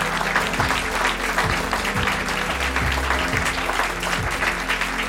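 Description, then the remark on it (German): Sustained applause from a large sold-out audience at the Deutschlandfunk Nova live stage show History live in the Alte Feuerwache in Mannheim, a dense, steady wash of clapping that stays loud and even for several seconds, with no voices standing out. “Für die vielleicht auch nochmal schnell einen Applaus, dass sie, dass sie wissen, dass ihr am Start seid.”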